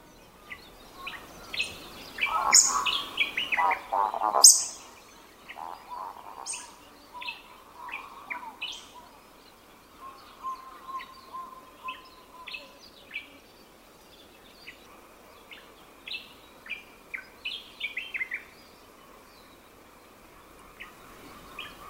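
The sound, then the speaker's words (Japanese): Eurasian woodcock calls over grassland after sunset on a small remote island: low, croaking grunts followed by a long run of sharp, high squeaky notes repeated at a steady pace, the bird alternating the two sounds while flying, with no one talking. “濁ったブーブーという声と鋭いピキッピキッという声が山茂です山茂は飛びながらこの2つの音を交互に出して鳴きます”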